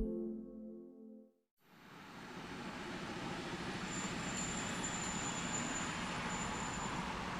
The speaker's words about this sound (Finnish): Vammalan rautatieasema on hiljainen paikka.